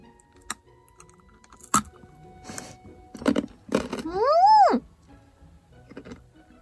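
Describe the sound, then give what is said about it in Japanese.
Crisp crunches of someone biting into a rock-hard Japanese rice cracker (osenbei), several sharp cracking bites spaced irregularly, with a short hummed vocal sound of approval in the middle. “おせんべいです。これまた美味しそうな。おこれは、噛めるかな、私。見るからに硬そう。”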